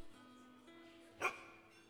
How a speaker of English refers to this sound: The dog nearby produced another woof.